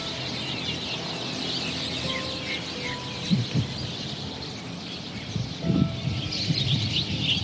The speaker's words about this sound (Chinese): 而某个有便利超商的入口处，发现了一大群正在开会的麻雀们。